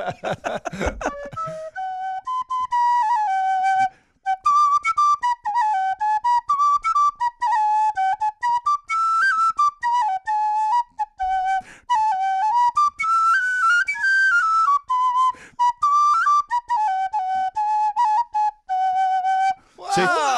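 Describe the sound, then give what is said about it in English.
A rare off-white recorder plays a slow, flowing melody of clear, breathy notes that rise and fall in a mid-to-high register, loud and steady with only brief pauses, and no one talks over it. “There's rare ones, like those rare whales. You see them, like yes, the rare white recorder.”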